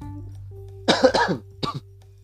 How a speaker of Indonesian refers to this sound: sorry ya gue sambil agak batuk-batuk